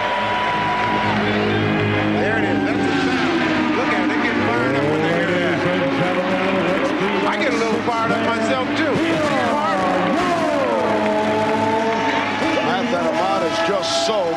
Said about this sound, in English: Well, here it's the sounds of the Indianapolis 500 that gets this crowd fired up. Watch this.